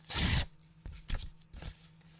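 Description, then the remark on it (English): A sheet of paper rips: one long loud tearing rasp, then a few shorter, softer tears and crinkles that trail off, with no one speaking. “I don't know whether she thought that people could hear, like when I tear the piece of paper, tearing up the speech.”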